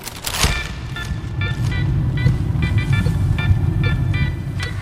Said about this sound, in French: Me voici dans la voiture de Georges Courrèges. Il est venu me chercher à la gare de Nîmes, dans le sud de la France.